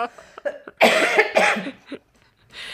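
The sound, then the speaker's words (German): A person coughs, two harsh bursts in quick succession followed by a short breath, with no talking. “Du äh, nee, sag mal wieder bitte, husten, warte.”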